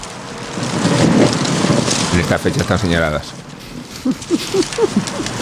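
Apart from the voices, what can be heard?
fireplace fire crackling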